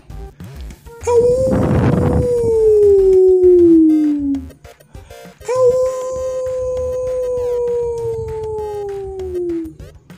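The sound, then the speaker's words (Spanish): Two long, drawn-out howls, one after another with a brief pause between them. Each holds a steady, loud pitch that sags slowly downward, and they sound close by. “Empezaba a caminar, casi a correr, cuando alcanzó a escuchar el aullido mucho más cercano.”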